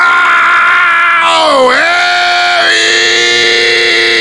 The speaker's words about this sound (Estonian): kes see on, kes karjub praegu? ta karjub minu järele